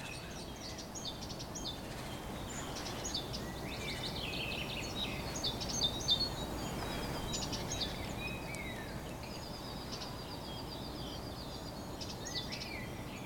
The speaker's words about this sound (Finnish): Täälläkin linnut laulaa ja, ja tota, on, on tosi kaunista kyllä, että jos hetken kuuntelisi tätä